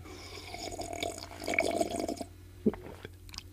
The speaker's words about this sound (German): Einen Schluck Kaffee zu mitnehmen.